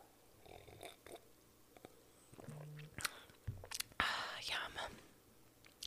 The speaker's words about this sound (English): And hold on, let me let me just take like a little sip of my mimosa.